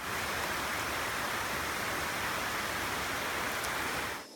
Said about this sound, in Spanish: En una tormenta oímos la lluvia que cae.